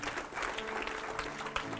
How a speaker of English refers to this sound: Now, would you clap your hands today?